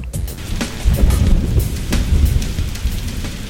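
Steady, heavy rain pours down at a school without a break, with a deep low rumble underneath and scattered sharper splashes and drips cutting through the constant wash of noise.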